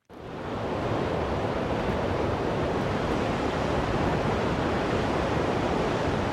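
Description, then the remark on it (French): Wind roars steadily through the mountains, a dense, loud, continuous rush that swells in within the first moment and then holds almost unchanged, with no voices. “C'est le bruit du vent dans la montagne.”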